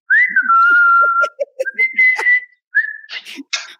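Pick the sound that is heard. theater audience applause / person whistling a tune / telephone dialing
person whistling a tune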